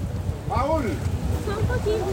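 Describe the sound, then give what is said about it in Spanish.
Steady low rumble of a motor launch on open water, buffeted by wind noise on the microphone, with a few indistinct voices calling out over the engine as people board the launch. “la gente empieza a subir a la lancha.”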